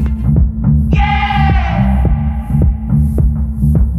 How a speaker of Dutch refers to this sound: Daarvan is ook gelijk een nieuwe track uitgebracht en die hoor je nu.